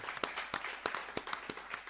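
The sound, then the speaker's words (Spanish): Brief, soft applause for a tournament participant: sharp, crisp claps land at uneven intervals over a light hiss, sounding like a small group clapping rather than a full crowd. No voices are heard. “Ahora mandarle un saludo al Almost Happy, un aplauso, hombre.”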